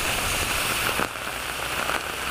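heavy rain falling

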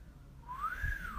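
person whistling

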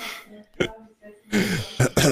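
cough and throat clearing

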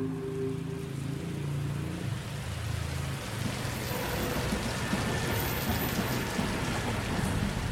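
rain falling

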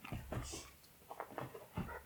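dog barking and whimpering

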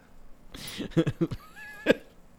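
someone coughing

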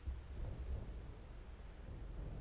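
thunder rumbling

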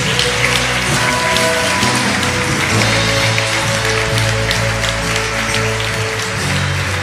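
audience applauding

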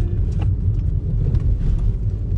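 car interior engine rumble

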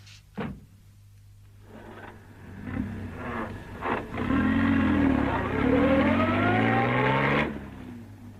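car engine driving

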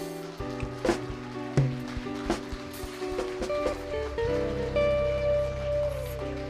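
audience applauding

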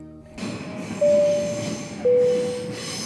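train running on rails

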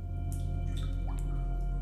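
water dripping

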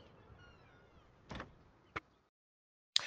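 door opening

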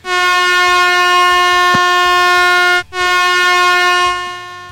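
air horn sound effect

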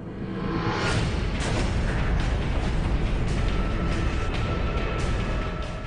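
supernova explosion sound effect

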